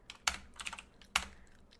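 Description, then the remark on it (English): Typing on a computer keyboard: a handful of crisp, clicky keystrokes at an uneven pace, two landing noticeably harder than the rest, with no voices. “Eat the sounds of my keyboard.”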